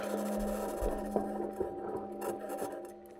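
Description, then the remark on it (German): NASA's Perseverance rover of the 2020 Mars mission driving over rough ground on Mars: a steady grinding, rasping scrape with a constant mechanical hum, broken by irregular knocks and clunks, continuous for the whole stretch without any voices. “Genau so klingt das Marsmobil der 2020 Mission Perseverance Rover, den die NASA auf den Mars geschickt hat”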